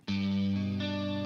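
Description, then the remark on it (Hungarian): A solo electric guitar rings out with a thick, distorted chord that sustains and shifts to a new voicing partway through, heavy with effects and no other instruments. “Gitár.”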